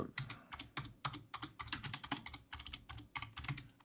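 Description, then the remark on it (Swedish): Rapid, continuous clicking of computer keys being typed, steady with small pauses between bursts, with no voices present. “Det knappas.”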